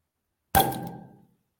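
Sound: beer bottle being opened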